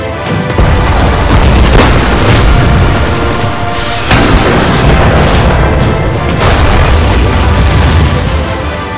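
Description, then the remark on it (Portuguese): Heavy artillery fire and explosions from armoured units being destroyed rumble continuously, with sharp booms bursting out around one, two, four and six seconds over a dense, roaring low-end wall of battle noise. “sons que se misturavam com a dos disparos de artilharia e da destruição das unidades blindadas.”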